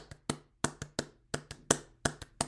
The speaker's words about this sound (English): And then the next time you say that sentence, you're clapping the rhythm of dragon. So now you're going, I went to see bear. And then you're clapping bear. bear, bear, bear.